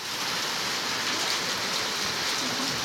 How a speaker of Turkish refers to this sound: Isparta'da sağanak su baskınına neden oldu. Yollar çöktü.